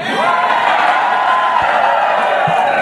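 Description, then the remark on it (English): A loud, rowdy crowd cheers and whoops continuously for Vim's 25th birthday, a dense wall of overlapping shouting voices filling the space without pause. “This is a rowdy crowd.”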